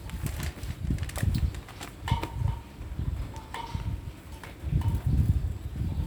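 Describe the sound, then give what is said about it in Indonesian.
Strong wind buffets the microphone in uneven gusts on an open second-floor loft, a steady low rumble that swells and fades, with faint rustling and occasional light clicks on top. “Moga suara angin ini tidak mengganggu suara-suara ini. Ini lumayan deras soalnya.”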